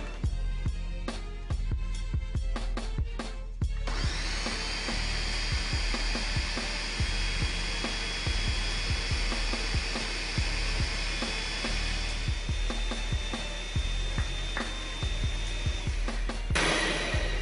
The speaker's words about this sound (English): All right, after five minutes of blending the sea moss, it has reached the consistency we were looking for.